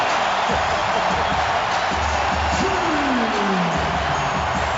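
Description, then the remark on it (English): An arena crowd cheers after LeBron James dunks for the Cavaliers against the Magic, set up by a Joe Smith block, in the first quarter with the Cavaliers leading 30-17. It is a loud, steady roar of noise that holds throughout, with one falling, whistle-like whoop gliding downward partway through. “It's getting noisy in Loudville.”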